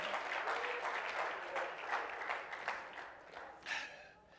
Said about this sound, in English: Oh, let's clap our hands and praise him tonight. Hallelujah. He's worthy.